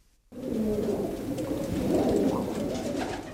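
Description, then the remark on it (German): Several city pigeons in Frankfurt coo continuously, their low, rolling throaty calls overlapping in a steady murmur after a brief moment of silence at the start. “Sie haben einen richtig schlechten Ruf. Stadttauben.”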